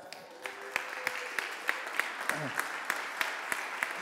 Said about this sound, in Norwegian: Se på denne. Vi må gi dem en applaus.